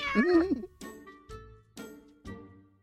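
A cat lets out one clear meow with a rising then falling pitch, followed by four short, evenly spaced rattling knocks.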